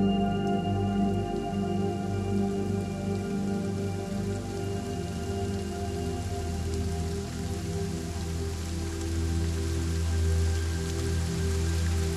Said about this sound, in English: Share with us the peculiar experience of green rain.